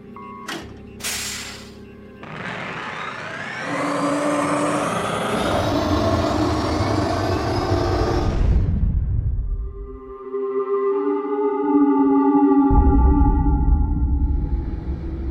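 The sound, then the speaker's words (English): A submarine's ionic turbine engines, activated in place of electric hydropropulsion after descending to 7,000 feet and clearing the canyons, power up to full thrust: a rising, whining roar climbs over several seconds, then gives way to a steady deep rumble with a sustained humming tone, loud throughout with no talking. “Activate the ionic turbine engines. Full thrust.”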